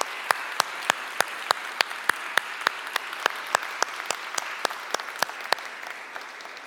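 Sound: audience applause and cheering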